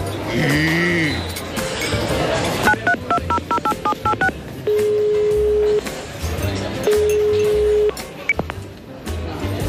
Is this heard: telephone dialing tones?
yes